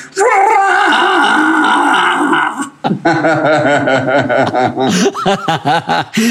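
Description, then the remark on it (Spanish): A person imitates Chewbacca from Star Wars, letting out a long, loud, warbling roar, then breaking into choppy bursts of guttural, laugh-like vocal sounds. “¿Puedes hacer el ruido de Chubaca, el sonido que hace Chubaca?”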